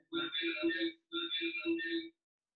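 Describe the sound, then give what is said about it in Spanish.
A garbled voice on a call line is smeared by heavy echo into two hollow, overlapping bursts about a second each, moderately loud and metallic, with a brief silence between them. “Hay mucho eco.”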